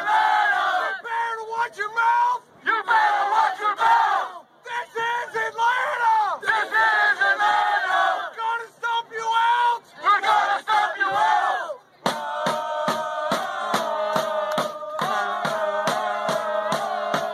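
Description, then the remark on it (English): A large crowd of Atlanta United supporters chants "This is Atlanta!" loudly in unison with a rising and falling rhythm, then steady, evenly spaced drumbeats join in beneath the continuing chant for the final stretch. “Atlanta United fans, as much as I sort of love the idea of this new club and, and I'm sure they relish their success, they do have a little way to go when it comes to their chanting.”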